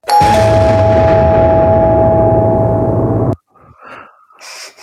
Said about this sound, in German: Du hättest wahrscheinlich groß und dunkel und vielleicht klingelt noch mal jemand nachts an der Tür so.